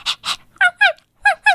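A voice imitates a small white dog named Cotton Candy (棉花糖): two breathy huffs, then four short, high-pitched yips in two quick pairs, loud and alone with no talking.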